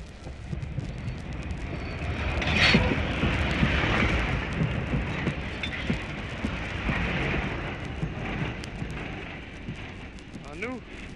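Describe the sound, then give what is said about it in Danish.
A heavy train, hauled slowly by two Danish State Railways locomotives with the first numbered 808, rumbles steadily toward a flag-lined festival ground. Its broad mechanical roar and clatter rise around the third second, with indistinct voices faintly under the noise. “Det er to af statsbanernes maskiner, der slæber toget frem.”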